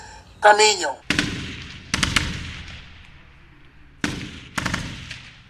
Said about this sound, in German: Zwei Einheiten mosambikanischer Rekruten robben auf einem Trainingsgelände nahe der Hauptstadt Maputo auf Pappkameraden zu. Die Pappkameraden sind der Feind und werden massiv unter Beschuss genommen.